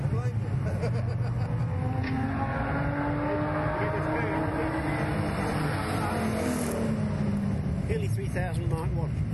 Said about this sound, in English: Finally, we get a car that sounds good.